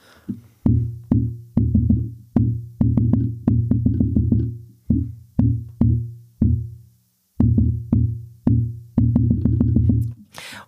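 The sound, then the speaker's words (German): Irregular heartbeat rhythm of atrial fibrillation, with thumping beats arriving at uneven intervals, some bunched rapidly, others spaced apart with brief pauses, loud with no talking. “Vorflimmern ist die häufigste Erkrankung, ist komplettes Chaos. Unregelmäßig, teilweise schnell, teilweise langsam, hört sich ungefähr so an.”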